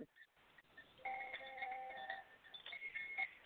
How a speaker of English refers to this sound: I'll play something for you. Here's a koshi chime.